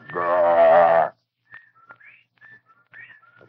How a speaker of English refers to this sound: And as Dr. Rice and I stood staring at this, this presence, the, the whippoorwills began to cry in unison outside the study window.